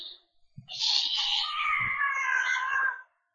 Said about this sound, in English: That was random cat sound. Uh, she gets pissy when I move her away from the table, so.